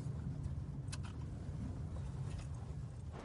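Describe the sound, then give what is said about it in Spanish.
A car rolls at low speed through a campsite with mobile homes toward a white car, its engine a steady, low rumble with faint road noise and a couple of brief higher rustles along the way. No voices. “circula hacia un coche blanco”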